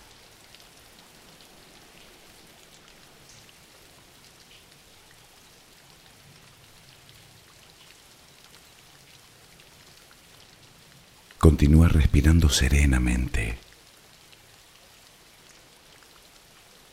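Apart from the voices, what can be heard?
steady rain falling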